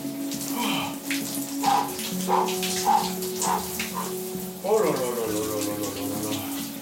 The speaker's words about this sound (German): Oh ja, ich steige gerade in die Dusche. Und zwar unter eiskaltes Wasser.